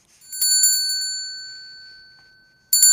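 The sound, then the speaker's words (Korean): A Salvation Army charity handbell rings in a quick flurry of bright strikes, then its metallic tone hangs and slowly fades before another sharp shake at the very end. No one speaks. “아, 구세군 종소리입니다.”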